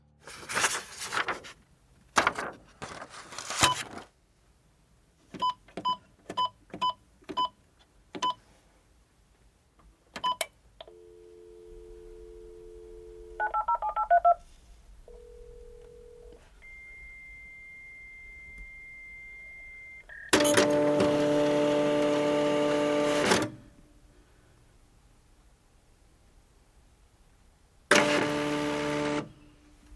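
A fax machine runs with no one talking: clicking and dial tones, a series of steady handshake beeps, then two loud bursts of mechanical whirring as it feeds and prints the page.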